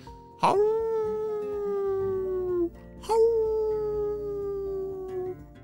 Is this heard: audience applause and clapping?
no